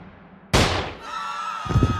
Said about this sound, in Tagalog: Isang malakas na putok ng baril ang umalingaw-ngaw sa buong palengke.